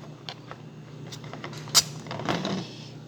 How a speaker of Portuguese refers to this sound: Pera aí. Deixa eu abrir a garrafa.